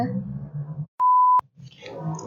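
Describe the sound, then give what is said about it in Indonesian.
A low, rumbling engine of a passing motorcycle drones steadily, cut off midway by a loud, flat electronic beep lasting about half a second before the engine rumble returns. “udah bunyi motor lagi kedengeran gak sih bunyi motor kalau kayak gitu jelas ya kedengeran”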